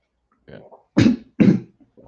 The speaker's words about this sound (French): Ah non, je suis pas droit de tousser, excuse-moi.